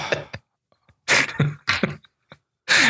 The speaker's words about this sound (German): Ich habe nicht gelacht, ich habe genießt. Oh, und jetzt weine ich gerade, weil das Niesen wehgetan hat.